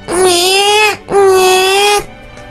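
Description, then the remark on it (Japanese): A voice imitates a newborn's cry: two long, loud, strained wails of about a second each, separated by a quick gasp, with no other sounds around. “赤ちゃんの泣き真似をするときの、細い管を、細い、細い細い管を、大量のお水が、そこから出ようとするというイメージで、泣くと、いいです。”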